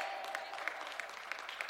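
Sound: audience clapping hands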